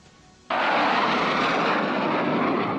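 An F-16 fighter jet roars in abruptly after a brief quiet moment, a loud, sustained rush of engine noise as it streaks low over Ankara on a test flight, fading slightly toward the end.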